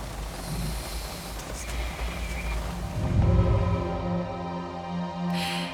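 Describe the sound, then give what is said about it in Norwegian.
Rain patters steadily against a car window, a soft continuous hiss heard from inside the car during a sound recording at 08:45, with a low droning hum joining partway through. No one speaks. “Det eneste jeg hører, er lyden av regnet mot bilruta, men vi tar likevel opp lyd.”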